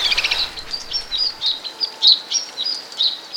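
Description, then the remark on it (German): A snowfinch calls in a run of short, high-pitched chirps, about eight notes at an uneven rhythm, clear and moderately loud with no voices present. “Und dieser Schneesperling, der ist aus der Spatzenfamilie dann schon eher so der beeindruckendste, zumindest in Europa.”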